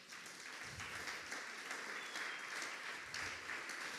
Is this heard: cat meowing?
no